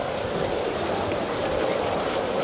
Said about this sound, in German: unsere Wesertour ist ja geprägt von Wasser. Ohne Worte, ne? Plätschert, macht Geräusche, summt, brummt.